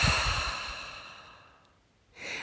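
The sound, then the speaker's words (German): A loud, breathy exhale through the mouth, like a long sigh, as the shoulders are lowered during a breathing exercise, gradually fading out, followed by the soft start of another breath. “Lass die Schultern sinken, atme laut hörbar durch den Mund aus.”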